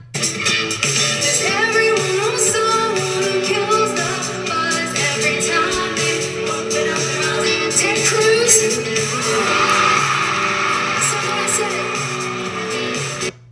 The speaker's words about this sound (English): And then the crowd cheered.